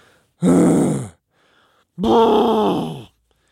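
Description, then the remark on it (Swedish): A voice imitates two drawn-out, exhausted groans of people coming into a locker room after working out, each about a second long and separated by a short pause, loud with a strained, falling pitch. “Men det är ljuden, ljuden jag tänker på mest. Det här att folk kommer in i omklädningsrummet och så bara...”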